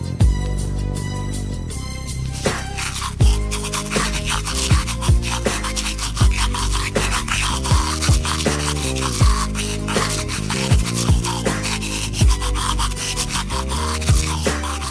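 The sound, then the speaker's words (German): An electric toothbrush buzzes out a cover of a song, its harsh motor drone stepping through a steady, rhythmic melody for the whole stretch. The sound is loud, and no one speaks. “ein Cover von …, aber gesungen von einer Zahnbürste”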